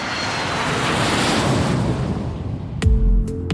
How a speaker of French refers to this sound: Eh bien, suivez l'avion. Vous savez, le petit avion qui décolle pour nous emmener loin.